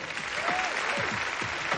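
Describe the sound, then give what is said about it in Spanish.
Steady applause from police colleagues as Danny is decorated at an award ceremony, a dense, even patter of many hands clapping at once, with faint voices or cheers drifting through the noise. “En un acto similar al que asistimos previamente con Nick, Danny es condecorado igualmente ante sus compañeros, los cuales sonríen y aplauden.”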